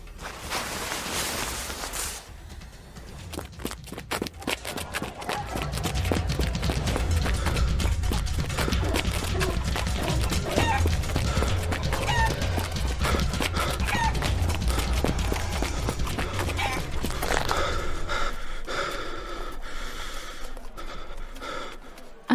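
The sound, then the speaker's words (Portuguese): Quick, steady footfalls of someone running with hands held together, fairly loud, with heavy panting breaths mixed in throughout and a brief rustle near the start. “então tá, vou correndo até com as mãos junto então.”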